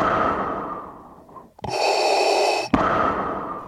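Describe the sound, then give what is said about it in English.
Heavy, ragged breathing from a person playing a workout video game, with a sharp gasping inhale in the middle and labored panting on either side; no speech. “I'm gonna, it really does at this point, I'm going to actually inject a little bit of audio of you playing the game.”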